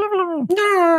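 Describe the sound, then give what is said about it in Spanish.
A single voice mimics Animal Crossing's Animalese babble with a continuous whiny vowel sound that briefly dips in pitch halfway through, then carries on for about a second with nothing else audible. “Como, pero, ok, el animaliz es el que suena así como.”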